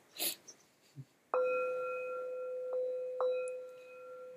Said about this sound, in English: I'll ring a bell for myself.